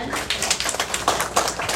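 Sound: applause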